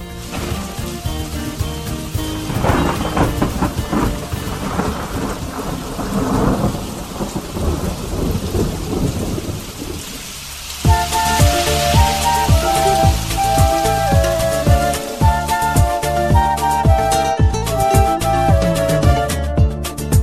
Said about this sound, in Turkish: Kaçın kaçın kaçın yağmur başlıyor.